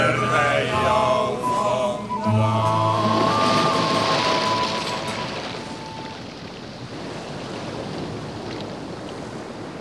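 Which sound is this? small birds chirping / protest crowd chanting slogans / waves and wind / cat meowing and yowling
waves and wind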